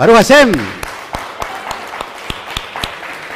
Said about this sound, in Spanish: Fuertes aplausos a todas las naciones.